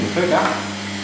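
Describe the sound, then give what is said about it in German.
A dental water spray and suction unit rinses teeth at a dentist, a steady rushing hiss with a low electric hum beneath it, continuous for about a second without a break. “Ja, cool aus die uns schnell abspülen, gell?”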